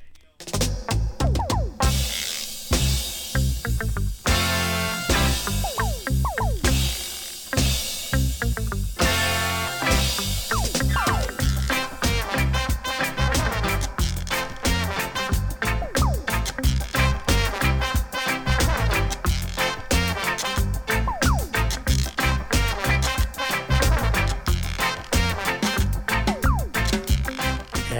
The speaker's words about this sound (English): I'll start you off as usual with the tunes I've bought this week, and this one I only picked up yesterday.